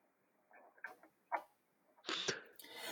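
A mobile phone vibrates, giving a few short, faint rattling buzzes followed by a louder, harsher burst, with no one talking.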